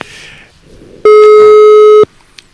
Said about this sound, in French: qu'on appelle immédiatement en espérant que je me suis pas trompé de numéro, parce que sinon c'est le, le, sale coup. Et, et donc c'est bel et bien le c'est bel et bien le cas. Je, retente la je retente le coup sans beaucoup d'espoir.